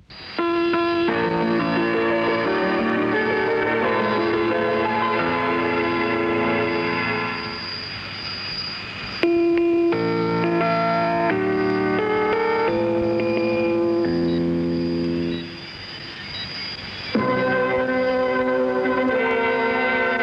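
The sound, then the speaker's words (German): A 1992 shortwave recording of the interval signal of Macedonian radio (Makedonska radiotelevizija): a loud, muffled melody of sustained, organ-like tones shifting step by step, briefly thinning out twice before resuming, with no talking. “Auch andere Stationen bedienten sich dieser variablen Pausenzeichen, so etwa Radio Tirana oder der mazedonische Rundfunk, hier mit einer Kurzwellenaufnahme aus dem Jahr 1992.”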